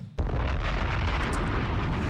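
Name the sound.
bomb explosion sound effect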